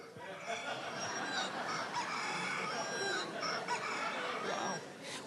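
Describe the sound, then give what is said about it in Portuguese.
A rooster-crowing phone ringtone plays: a rooster crows repeatedly over a few seconds, loud, with hens clucking in the background and no one speaking. “Não estava nada programado, mas o Galo cantou.”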